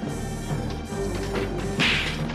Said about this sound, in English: Duke and Mutt just crashed a water moccasin into the Cobra base.